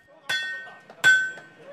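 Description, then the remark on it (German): A blacksmith strikes three hard hammer blows on metal in his workshop, each ringing out with a bright anvil-like tone, at a steady, unhurried pace. “Er hat zwei Mitarbeiter eingestellt und mit ihnen flickt er nicht nur zerbrochene Felgen, er schmiedet auch Ackergerät, repariert Türen, baut Sesselgestelle.”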